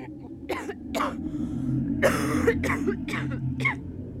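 A run of harsh, raspy coughs, roughly six bursts at uneven intervals, one longer and rougher in the middle, over a steady low hum with no talking.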